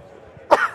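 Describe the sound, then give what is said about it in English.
A single sharp sneeze bursts out after a quiet moment, loud and abrupt, then quickly fades with no talking around it. “Bless you”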